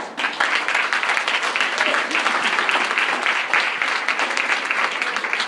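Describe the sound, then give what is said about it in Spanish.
A crowd at a business talk bursts into sustained applause for themselves, dense overlapping clapping that holds steady and loud for several seconds, with faint voices mixed into the roar. “De verdad, un aplauso para ustedes.”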